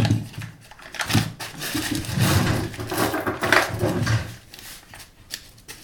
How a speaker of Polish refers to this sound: Ale zanim to nastąpi, do garnka dam odrobinę masła i leciutko przesmażę te czarki. Tak do momentu, aż puszczą troszeczkę wody.